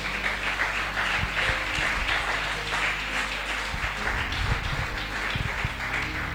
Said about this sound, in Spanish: ¿Quién dice amén? Bueno, dale ese aplauso al Señor, venga.